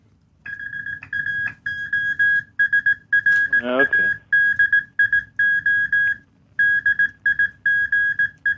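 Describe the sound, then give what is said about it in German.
A steady, high-pitched tone keys on and off in short and long bursts of Morse code, running almost throughout; a person briefly speaks partway through. “du kriegst, kriegst Bonus- und Kürpunkte für, äh, äh für, für Morsecode vorsingen”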